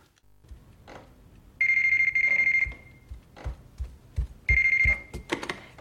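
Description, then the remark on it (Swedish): A telephone bell rings loudly in two bursts, a long ring followed by a shorter one, with soft thuds like footsteps in between and no talking, as a woman goes to the phone to answer it; the caller is the Babadook. “då går hon fram till telefonen och svarar”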